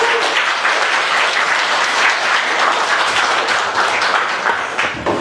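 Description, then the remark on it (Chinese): An audience at an opera-themed talk event applauds steadily, a dense wash of many hands clapping at an even, loud level throughout with no voices breaking through. “歌剧开场前都应该有掌声的，大家都来了。”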